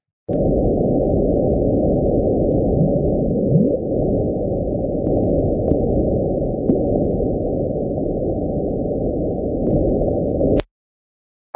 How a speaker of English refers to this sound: maybe they were hearing it weird or whatever so they sped it up to 16 times the original speed and that sound sounds like a bloop and that's right here